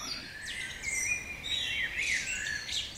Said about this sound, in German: Das Vogelgezwitscher. Bei uns allerdings wird das Vogelgezwitscher immer leiser, immer ruhiger und vor allem weniger vielfältig.